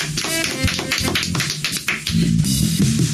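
A song's instrumental opening plays on the radio show Qué Morning at a steady, fairly loud level, with crisp percussive taps and plucked notes over a warm low melodic line, and no voices.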